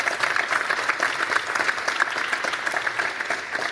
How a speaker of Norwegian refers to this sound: Ja. da, folkens, er panelet fulltallet. Jeg syns vi skal gi dem en liten applaus når de er på plass her også.